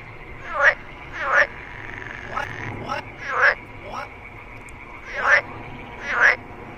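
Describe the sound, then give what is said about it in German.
A frog croaks in a series of about six short, raspy calls spaced roughly a second apart, clear over a faint, steady background hiss. “Und zwar habe ich ein Interview geführt mit einem Frosch und ich äh, sage dir jetzt einfach, was er dazu erzählt hat.”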